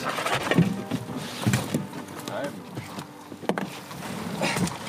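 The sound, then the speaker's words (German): A fishing net hanging from a red buoy at the river's edge is hauled aboard a small boat on the Havel by men working together, fishing for mitten crabs and eels, with watery splashes and knocks in irregular bursts over a steady outdoor wash of water and wind. “Schröders Gehilfe greift nach der Boje, an deren Unterseite ein Netz hängt. Mit vereinten Kräften ziehen es die Männer ins Boot.”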